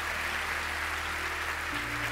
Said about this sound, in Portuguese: Aplauda o Senhor com alegria. Louve a Deus.